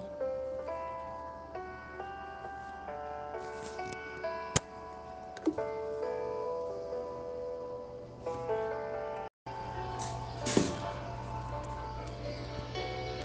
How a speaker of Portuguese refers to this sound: Estes são os acordes de agora. Uma contagem de tempo, um bater de relógio.